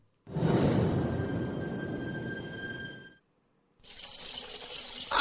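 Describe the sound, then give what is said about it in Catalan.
Water runs steadily from a tap in a home for about three seconds, loud, then stops briefly before a brighter, hissier gush of water starts again and builds toward the end. “Què fa tot això ple d'aigua?”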